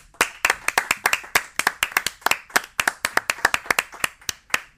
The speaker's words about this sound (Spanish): Son reales los aplausos. Son reales, claro, por supuesto.